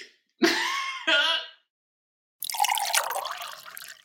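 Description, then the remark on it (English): A sip of still, filtered tap water from a glass: a short throaty vocal noise, a brief silence, then a breathy, wet slurp of drinking lasting over a second. “You're drinking still right now. You took a little. Sip.”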